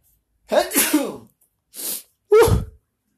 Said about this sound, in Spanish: Creo que voy a estornudar.